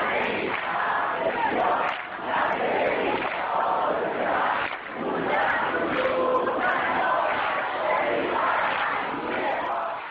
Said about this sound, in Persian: این صدای همخونی دانشجوهاست در یکی از پاییزهای خیس تاریخ دانشگاه تهران